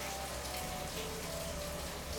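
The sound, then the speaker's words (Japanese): Steady heavy rain pours down in Yogyakarta, Indonesia, in the rainy season on the evening of January 26, at 28°C and humid. A dense continuous hiss of drops patters on surfaces, unbroken throughout, with a low background hum beneath and no voices. “雨季真っ只中のジョグジャカルタとはいえ雨のない曇りの日が続いていましたが今日1月26日は夕方16時ぐらいから結構な降りとなっていますこの収録にも雨の音が入っているかもしれません”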